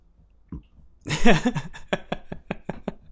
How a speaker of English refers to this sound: All right, it's a creaky chair, but it doesn't sound like I'm farting.